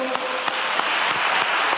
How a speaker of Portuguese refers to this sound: Pode aplaudir o Senhor.